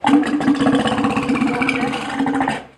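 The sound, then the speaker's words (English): A walrus rumble from E.T. the Walrus, a walrus trained to make vocalizations, at Point Defiance Zoo and Aquarium in Tacoma, Washington: a loud, steady, throbbing growl lasting nearly three seconds, with a rapid pulsing texture almost like an idling engine, before cutting off abruptly. “has been trained to do a bunch of different vocalizations, like sputter and rumble.”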